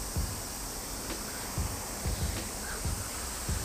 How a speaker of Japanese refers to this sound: セミの音、川の流れる音。写真や映像はポッドキャストではお届けできないんですがこういったあの自然の音をお届けできるかなと思って今、えー、レックボタンを押したところです